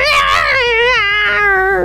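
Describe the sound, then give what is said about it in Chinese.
A single drawn-out, mournful cat yowl, loud and wavering in pitch, starting high and sliding gradually lower over about two seconds with no talking. “然后这个猫妖就答应他之后，然后外面人就听到一阵凄惨的猫叫，”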